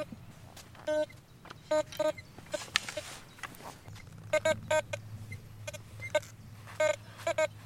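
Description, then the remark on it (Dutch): A metal detector gives a series of short, warbling electronic beeps, some single and some in quick clusters, over a low outdoor rumble with no talking, signalling a buried object that turns out to be a grenade fragment, near the Peel boundary fault line. “Ja, ik heb het signaal. Ah, spannend. Ik hoor hem piepen.”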